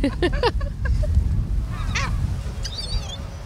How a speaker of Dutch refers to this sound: Ik heb het nog nooit gehad dat er zoveel meeuwen